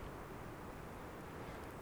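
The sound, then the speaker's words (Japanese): A steady, low roar of spring wind passing over the upper slopes of the mountains, heard from a valley beside a road, continuous and fairly faint, with no voices and no distinct gusts or breaks. “あと後ろではゴーッと聞こえてるんですけど今日ちょっとやっぱり春の風が吹いているんですね、はい、山の上の方を風が抜けていくとでも僕がいるのは道路沿いの谷間なので、えそれほど大きなね風が吹き抜けていくこともなく、はい、本当に気持ちいいですね”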